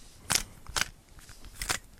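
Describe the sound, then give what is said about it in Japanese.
A Rubik's cube kept in a bedroom being twisted for ASMR-like sound: three crisp, bright plastic clicks at uneven intervals, each short and sharp, over a quiet background with no one talking. “寝室用のルービックキューブがね。ここにあるから、これでね、ちょっとこう、音フェチっぽいことね。”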